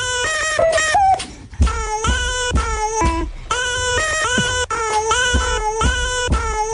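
A baby cries loudly and continuously, with repeated wailing bursts that rise and fall in pitch, with no other voices.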